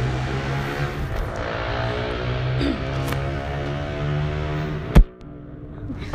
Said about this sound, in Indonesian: lagi-lagi ada motor berseliweran ya